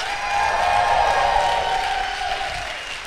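An audience at a sermon breaks into steady applause, a dense wash of clapping with some cheering voices mixed in, holding fairly loud for about three seconds before easing off slightly.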